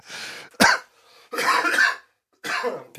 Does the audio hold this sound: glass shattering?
no